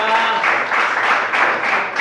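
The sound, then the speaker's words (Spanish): An audience at a morning church service applauds the Lord steadily, many hands clapping together in a dense, continuous wash of sound that stays fairly loud throughout, with faint voices or tones underneath. “Dele fuerte aplausos aplauso al Señor.”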